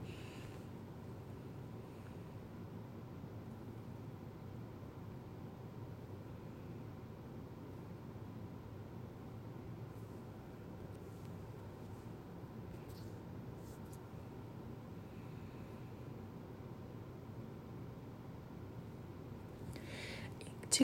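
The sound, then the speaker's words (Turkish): An air conditioner blows steadily throughout, a soft, even rush of air with a low hum underneath, unchanging and fairly quiet, with no one speaking. “bir de üfleme sesi geliyorsa klimamdan dolayı.”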